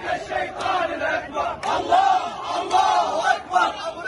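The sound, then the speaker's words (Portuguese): A large crowd in Baghdad, Iraq, marching toward the United States embassy, chants in unison "America is the greatest devil", rhythmic shouted phrases rising and falling in waves over a constant roar of many voices, loud, with no single speaker standing out. “A multidão se dirigindo à embaixada dos Estados Unidos. Estão cantando: A América é o maior demônio.”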